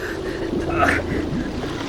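Sewage water splashes and gushes steadily in at a door, a dense rushing and sloshing that pours in without pause, with a few faint voice-like murmurs underneath.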